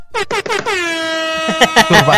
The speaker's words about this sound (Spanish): Pon la bocinita, pon la bocinita. ¡Bocina, bocina!